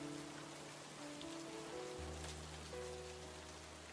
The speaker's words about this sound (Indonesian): Ah, apa sih harus hujan? Semoga aja nggak ditunda nih penerbangan. Meskipun hujan dan petir bergemuruh, ah, syukurlah.